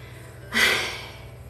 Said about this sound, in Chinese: 哎呀，我知道有个嗡嗡的声音，它好像是那个那个排气扇。等一下，我看一下排气扇能不能关啊？